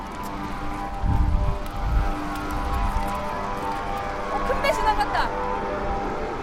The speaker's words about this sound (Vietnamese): Cầu vừa được tách ra, các tàu thuyền lớn chờ sẵn từ trước liền hú coi và bắt đầu đi qua phía dưới cầu.